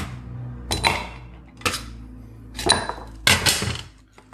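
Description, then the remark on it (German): Ice cubes clatter into a glass as a drink is prepared: four separate, bright clinking bursts with short pauses between them, fairly loud over a quiet background, with no talking. “Mit oder ohne Eis? Mit Eis. Das ist nicht mehr ganz so viel geworden, aber ich glaube, das reicht erstmal.”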